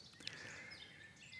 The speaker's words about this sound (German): Heute, wie ihr hören könnt, im Hintergrund Vögelgezwitscher.